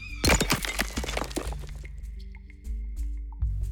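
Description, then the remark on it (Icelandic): A turtle's smooth shell cracks apart in a hard landing: a loud burst of rapid crunching and snapping for about a second as it breaks into many pieces, then the breaking fades into a low, steady hum. “Fína slétta skél skjálfbökunar brotnaði í marga hluta og greri aldrei eins að fullu.”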